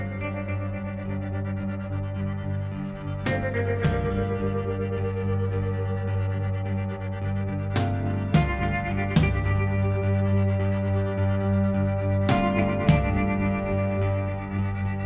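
A song plays with a thick, sustained wash of distorted, effects-heavy tones over a steady low drone, punctuated by a few sharp percussive hits at irregular intervals. No voices are heard.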